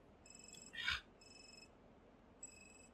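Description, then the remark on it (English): A phone beeps repeatedly with an incoming message: steady, high electronic tones in three spaced bursts, interrupted once by a brief noisy rustle. The beeps sound fairly soft, and no one speaks. “It just beeps and beeps and beeps until you hit the right button.”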